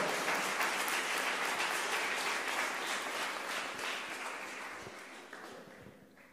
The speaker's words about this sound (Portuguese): Uma salva de palmas para a palavra de Deus, bem forte, bem forte.